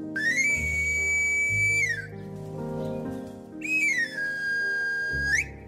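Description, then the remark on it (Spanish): A knife sharpener announces himself by playing his cane pan flute: two loud whistled runs, each gliding up or down a scale of high, pure notes, with a soft pause between them over a low background hum. “Otro chiflido muy peculiar es el de la flauta de caña con la que el afilador se anuncia y con el cual durante años tantos comerciantes como amas de casa corrían a listar sus cuchillos o tijeras que necesitaran afilar.”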